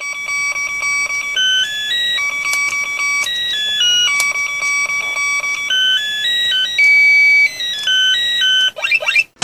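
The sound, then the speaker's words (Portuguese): Loud chiptune melody from an Apollo Game handheld Brick Game, square-wave beeps stepping between pitches in a steady tune, ending in a quick rising electronic sweep. No one talks over it. “E ele tinha um lance muito maneiro que ele tinha uma vozinha lá em chiptune, sei lá, que. Fala, pá, pá, era, pá.”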